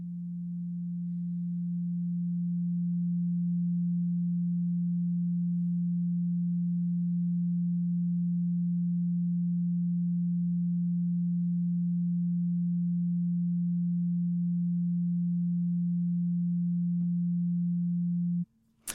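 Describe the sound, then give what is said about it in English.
A steady, pure low-pitched sine tone at 174 hertz hums continuously and evenly for about eighteen seconds, then cuts off abruptly with a faint click at the end. No voices. “and that was 20 seconds of 174 hertz.”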